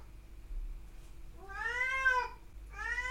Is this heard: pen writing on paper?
no